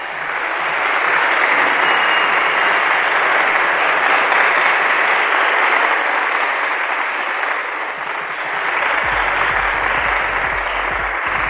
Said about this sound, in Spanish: Aplausos por favor.